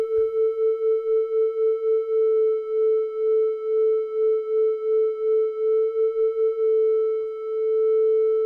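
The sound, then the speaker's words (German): A steady, mid-pitched theremin tone, a periodic oscillation, hums with a regular pulsing wobble from two tones a few hertz apart being tuned together; the wobble gradually slows, settling into an almost smooth, even sustained note. No one speaks. “Aber ich meine, wir hören ja genau, das ist eben eine periodische Schwingung.”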